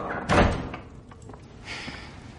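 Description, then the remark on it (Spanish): A door shuts with a single solid thud, followed by faint creaks and a soft scraping rustle as the room settles. “cierra.”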